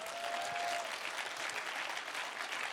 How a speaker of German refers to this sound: Könnt ihr jetzt nochmal richtig einen Applaus geben?